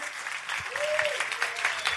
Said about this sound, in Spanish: Vamos a dar un aplauso.